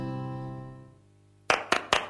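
A sustained low musical tone fades out, then three sharp hand claps follow in quick succession, each a crisp, bright snap.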